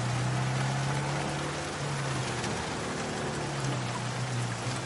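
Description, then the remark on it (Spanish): Heavy storm rain pours down over an island in a dense, unbroken hiss for the whole stretch, as a plane moves away through the storm, with a steady low drone humming faintly underneath. No one speaks. “El avión se aleja entre la tormenta que cae sobre la isla.”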